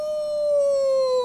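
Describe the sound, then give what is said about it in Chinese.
During a picture-book reading, children imitate a wolf howl with one long, steady, fairly loud tone that slowly drifts slightly lower in pitch, with no talking around it. “大野狼也跟着一起叫了耶。”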